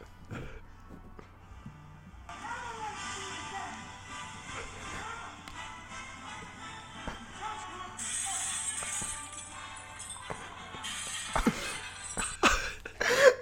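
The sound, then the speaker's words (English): The British national anthem plays amid a chaotic din of screaming and breaking glass, with sharp crashes and clinks piling up and growing louder toward the end. “we requested if we could have the British national anthem with Tom Cruise screaming and some glass breaking”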